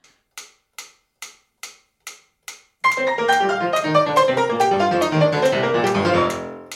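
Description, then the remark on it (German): A fast metronome clicks about seven times at a quick, steady pace, set to a piano sonata's very fast tempo marking, then dense, rapid piano playing of the sonata bursts in and continues to the end. “Die Metronomangaben sind nämlich wahnsinnig schnell.”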